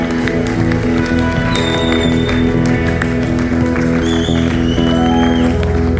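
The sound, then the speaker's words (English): An audience cheers and applauds loudly for Jesus, a dense, continuous wash of clapping and voices lasting several seconds, with steady sustained tones droning underneath. “How about giving Jesus another cheer?”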